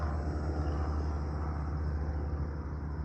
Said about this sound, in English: let our plane go over. Speaking of faith, whoever's in that plane right now has faith, don't they? They have faith that that plane's going to keep them up, that that engine's going to work, that whoever designed that thing knew what they were doing.